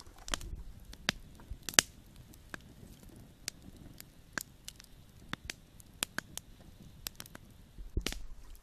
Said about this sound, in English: Tonight we are on the Superior Hiking Trail right near Oberg Mountain. We're sitting by the crackling campfire.